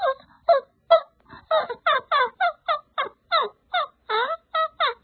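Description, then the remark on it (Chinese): A person imitates a small dog barking, producing a rapid string of about fifteen short, high-pitched yips in a steady rhythm, fairly loud with no other talking. “哎，这是狗叫，真的很奇怪啊！”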